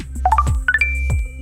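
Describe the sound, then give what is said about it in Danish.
A short, bright electronic chime from the Tinder dating app signals a match: two quick rising three-note flourishes of clear synthetic tones, fairly loud, over a faint low hum. “Det er lyden af et match, og det er åbenbart en effektiv lyd.”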